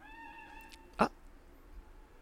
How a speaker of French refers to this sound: Oui, un bruit de. il y a euh, des canards et des, oies qui sont pas loin.